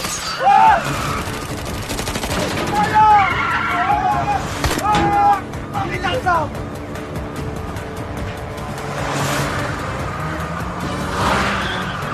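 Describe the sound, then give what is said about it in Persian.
Tires screech in several sharp squeals over roaring engines during a fast chase involving three or four cars and a motorcycle, with bursts of rapid gunfire-like popping mixed into the loud, busy action. “مونده سه چهار تا ماشین و یه موتور دیگه”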